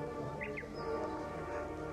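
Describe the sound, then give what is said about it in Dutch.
A few quick chirps from caged birds flick by early on, soft, set against a steady, busy background hum of other sounds. “zijn vogels in kooi.”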